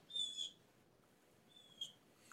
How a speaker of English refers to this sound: I like that hawk you. screeching in the background